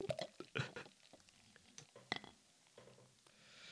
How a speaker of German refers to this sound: Warte, ich muss gerade mal äh, die Masse einschenken hier. Ja, Moment. Ich, ich hoffe, man hört's. Das ist immer ein schönes Vo Plätschern. Voll das Geschäft, ey, bis die voll ist.